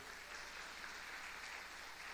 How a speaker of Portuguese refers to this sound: Dá uma salva de palmas a Jesus porque ele é bom.